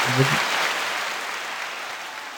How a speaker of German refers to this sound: Das war der kürzeste Applaus der Welt.